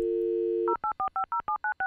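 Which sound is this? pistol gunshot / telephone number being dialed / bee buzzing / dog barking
telephone number being dialed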